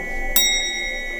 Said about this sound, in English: Right through the security gate we go. What does that alarm mean?